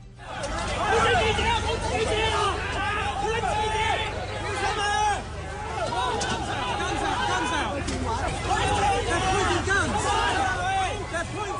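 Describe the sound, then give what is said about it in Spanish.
A loud, chaotic street protest crowd at a march in a city, with many overlapping voices shouting and clamoring continuously, a dense roar of agitated people with sharp rising cries breaking through throughout. “Inicialmente la manifestación fue prohibida por la policía, pero luego de algunos diálogos la autorizaron con el compromiso de mantener las rutas autorizadas, pero como escuchamos se ha tornado en caos en las calles de esa ciudad en las últimas horas”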